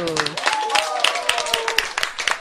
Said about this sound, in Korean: 자, 박수.